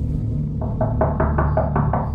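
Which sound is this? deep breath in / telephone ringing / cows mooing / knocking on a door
knocking on a door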